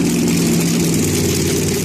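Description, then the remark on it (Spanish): Stock car race engines at a NASCAR race in Las Vegas roar in a loud, steady, continuous drone with a deep rumbling low end and a buzzing harmonic tone, with no voices. “Hoy el sonido de los carros hoy.”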